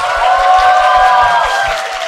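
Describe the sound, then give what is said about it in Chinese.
A New Year audience at the comedy talk show Xiexing Liaotianhui cheers and applauds loudly and steadily for about two seconds as the five hosts are introduced, with high whooping voices blended into the noise and a rhythmic low thumping underneath, easing slightly at the end. “怎么感觉我们五个的呼声像是 WiFi 信号一样， 对 越来越强，我天哪！”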